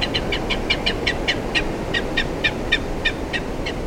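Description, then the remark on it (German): A gyrfalcon gives a steady series of harsh, high cackling notes, around four per second, repeated throughout over a constant low rumbling background noise. “Aber andererseits, jetzt so beim Reden, bleibt vielleicht lieber da oben, lieber Gerfalke, Vogel der Woche.”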